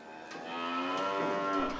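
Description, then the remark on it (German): A cow in a barn holding 60 cows lets out a long, loud moo in icy cold weather, a sustained harmonic bellow that swells and slightly drops in pitch. “Dann gibt es auch wieder zu trinken für die 60 Kühe im Stall.”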